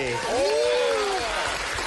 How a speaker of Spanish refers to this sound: Recibamos con un fuerte aplauso al señor actor, el gran actor Julio Echavarri.